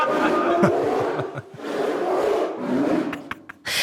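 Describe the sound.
A person imitates a polar bear's roar with a long, raspy, growling vocalization that sustains for several seconds, loud, breaking into short gravelly bursts near the end.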